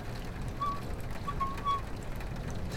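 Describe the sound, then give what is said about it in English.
Steady rain pours down during a storm in a continuous hiss with a low, rumbling undertone, while a few faint, brief whistling tones drift through in the background. No one speaks. “You know, some people like storms.”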